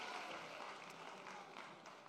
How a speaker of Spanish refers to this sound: Alguien le puede dar un aplauso fuerte al Señor.